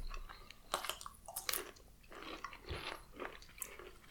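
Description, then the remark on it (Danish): Wet crunching as someone bites into a pickled cucumber and chews it after drinking vodka, with several irregular crisp bursts over a few seconds and no talking. “Spiser rugbrød og tager en bid af den syltede agurk.”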